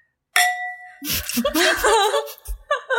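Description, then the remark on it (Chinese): A bright, ringing clink of red wine glasses filled with beer touching in a toast, its tone lingering for a moment before laughter and lively voices break in over it. “By the way，我们此时在用红酒杯喝啤酒，因为我们家红酒没有了，”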